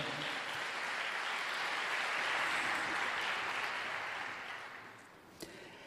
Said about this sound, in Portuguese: Em nome de Jesus, pode aplaudir, porque Ele é bom.